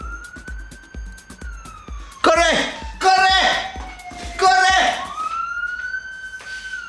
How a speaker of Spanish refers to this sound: Disculpen, está pasando una patrulla.